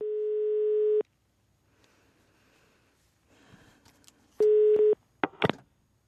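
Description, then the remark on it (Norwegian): A telephone ringing tone of a call placed from the Norwegian radio station NRK P2 sounds twice, each a loud steady electronic burst about a second long with a quiet, hissy line in between, followed by a few sharp clicks as the line connects. “Jeg ringer fra NRK P2.”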